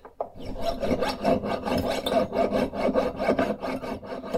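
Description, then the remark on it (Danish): A jeweler's saw rasps through gold, cutting away the excess gold layer from a ring, in quick, steady back-and-forth strokes, a dry scratchy rhythm repeating with no voices. “Og så skal jeg lige have gjort saven klar her, så jeg kan save det overflødige guldlag her.”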